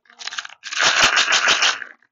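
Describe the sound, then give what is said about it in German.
Tic Tac mints rattle inside a plastic box as it is shaken: a brief shake, a pause, then a longer, harsh burst of clattering that sounds loud and slightly distorted. “Das ist, das ist das Geräusch von Tic-Tacs.”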